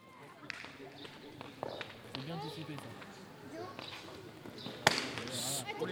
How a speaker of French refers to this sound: C'est reparti pour une, une bonne saison de Chistera. Voilà, on entend bien, le, la pelote contre le mur et après dans le gant en osier.